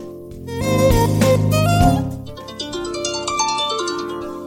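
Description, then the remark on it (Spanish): An iPhone harp ringtone plays, bright plucked notes in a quick rippling pattern with a loud opening swell that settles into a softer, sparkling run. No one speaks. “Arpa se llamaba este.”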